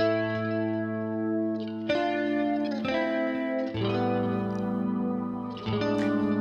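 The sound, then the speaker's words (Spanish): Guitar music from the original 2008 version of a song, with a heavily effected, slightly distorted tone, playing sustained ringing chords that change every second or two, loud, with no voices. “No, la guitarra está.”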